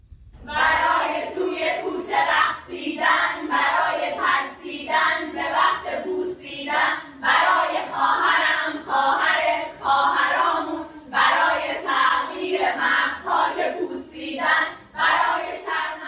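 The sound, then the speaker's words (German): A group of girls in Iran, standing with their backs to the camera with their headscarves removed, sings a song by an Iranian singer-songwriter together in unison. Their voices are loud and steady across sustained melodic phrases, with brief breaks between lines and no instruments evident. “Und sie singen den Song eines, eines ähm, iranischen Songwriters, Singer-Songwriters,”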